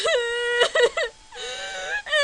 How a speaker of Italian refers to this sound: e sentite come piange, Atene non ride.